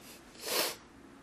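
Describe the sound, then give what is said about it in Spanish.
A single sneeze, a quick breathy burst that rises and fades within half a second, fairly soft, with no talking around it. “Salud.”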